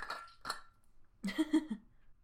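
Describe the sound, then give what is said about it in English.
Someone takes a quick drink of water: two short clinks of a glass, then a brief run of low, throaty gulps and swallows, all fairly faint with no talking. “Quick drink of water.”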